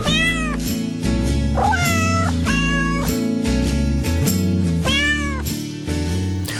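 A cat meows several times, clear, each meow a drawn-out rising and falling cry, laid over a steady musical backing that plays continuously underneath.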